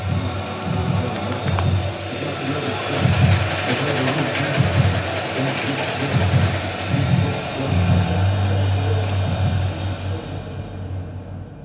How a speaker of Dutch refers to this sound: En dan doen ze dat zo door zo'n uh, maalder, koffiemaalmachine, koffiemolen, zo noemt dat. Voilà. En, en ik heb dat geluid dan ook op opgenomen, want de geur opnemen, dat kon ik niet.